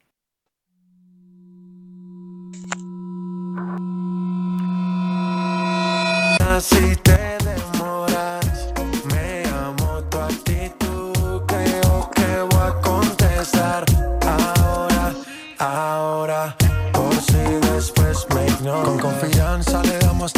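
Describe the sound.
A hip-hop instrumental beat plays loudly: sustained synth tones swell for several seconds, then heavy bass and punchy drums kick in, with a brief drop-out before the beat returns.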